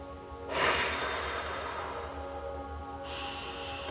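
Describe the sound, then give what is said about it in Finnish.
One long, deep exhale, breathy, starting with a strong rush of air and then trailing off steadily over about two and a half seconds. No one speaks. “Hengitä ulos.”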